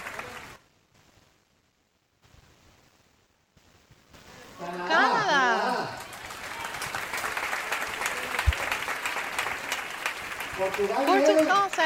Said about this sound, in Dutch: Een, een applaus voor de broeders uit Spanje. God zegent jullie.